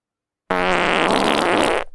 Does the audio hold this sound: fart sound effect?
yes